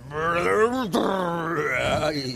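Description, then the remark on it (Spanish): A voice imitates an elephant trumpeting happily, with a loud, drawn-out wailing call whose pitch swoops down, breaks briefly, then rises and holds for a couple of seconds. “Barritó el elefante muy feliz y pum, pum, pum, cuando ellos llegaban con pasos pesados, la tierra temblaba y los ratones rebotaban.”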